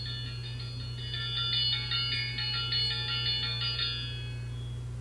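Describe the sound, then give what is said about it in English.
A bright, metallic triangle ring alert tone, selected from a list of alert tones, rings in a quick series of repeated strikes for a few seconds, then fades into its shimmering decay over a low steady background hum. “Selected. Triangle.”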